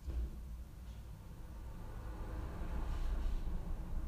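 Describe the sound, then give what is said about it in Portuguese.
A steady low rumble of traffic from cars passing, swelling slightly toward the end, with no voices. “Os carros.”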